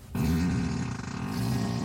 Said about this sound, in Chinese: 对，所以你驾驶可你在操控面盘的时候，你就可以让屁声从后座发出来。 对，所以等于是后座的乘客，你只要设定好，他一坐下来，你按那个钮就会发从后座发出屁声。 那我们来让后座放一下吧。